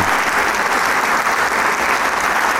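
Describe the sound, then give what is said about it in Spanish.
Sustained, loud applause from a large audience, a dense steady wash of clapping hands filling the whole stretch without pause, an ovation for the Camerata de Coahuila after its performance of Beethoven in a full theatre. “El público estaba ovacionando, agradecido con Camerata de Coahuila por esta maravillosa, maravillosa interpretación de Beethoven”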